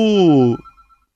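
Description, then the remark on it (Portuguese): A single loud, buzzy telephone ring, about half a second long, with a slightly falling pitch. It cuts off abruptly, leaving only faint background noise. “Nem sabia que tinha telefone aqui.”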